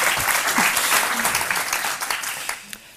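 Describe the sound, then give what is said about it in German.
Audience applause for a co-interviewer at a live interview event. Many hands clap steadily in a dense wash for a few seconds, then thin out toward the end with a few scattered claps. “Entschuldigung, du kriegst natürlich auch Applaus.”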